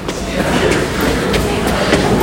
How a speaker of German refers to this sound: Achso, hier fährt die S-Bahn, die U-Bahn am selben Gleis.